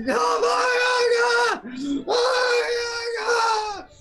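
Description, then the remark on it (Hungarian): A creature screams in agony, loud, two long sustained anguished cries broken by a brief gasp-like pause, with no talking. “Hallod még, ahogy így üvölti folyamatosan,”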